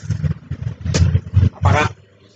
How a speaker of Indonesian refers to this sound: ya saya jujur ya saya tidak suka dengan suara kenalpot yang berisik kayak gitu itu sangat mengganggu sekali mengganggu mengganggu itu orang yang di rumah sedang tidur diganggu dengan suara knalpot seperti itu, itu sumpah itu kegiatan paling tolol itu